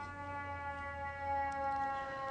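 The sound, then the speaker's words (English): A siren passes outside, a faint, steady wailing tone that holds level for a couple of seconds with no one speaking. “I'm gonna let the siren pass.”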